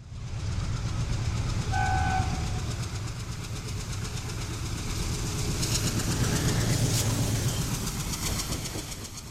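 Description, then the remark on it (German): A train in Assam rumbles steadily past on the tracks, with heavy low-end roar and clattering wheels, a brief whistle-like tone early on, loud throughout with no talking. “In den letzten 25 Jahren kamen allein in Assam 70 Elefanten bei Zusammenstößen mit Zügen ums Leben.”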